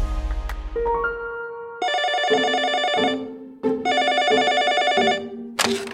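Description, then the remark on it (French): A telephone rings in two long bursts of bright, buzzing electronic tones, each lasting over a second, with a short pause between them. Loud, with no talking; in a children's story, it is a boy's mother calling. “C'est la maman de Tom au téléphone.”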